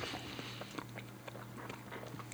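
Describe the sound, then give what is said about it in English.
Wet chewing and biting of food repeats in an uneven rhythm over a steady low hum, with no talking. “So let's get into this week's recap while I chew my food.”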